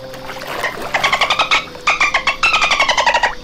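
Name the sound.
voice imitating a dolphin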